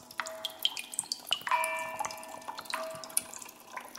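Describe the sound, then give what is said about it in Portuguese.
A Japanese water harp in a garden, a large jar buried in the soil with a bamboo device dripping water slowly: scattered drops fall at an irregular pace, each striking a clear, bell-like tone that rings and overlaps with the next before fading. Quiet, with no voices. “Do outro lado do jardim, um monge escuta uma harpa d'água. Esse instrumento ancestral japonês é formado por um grande jarro enterrado no solo e um dispositivo de bambu que pinga água aos poucos.”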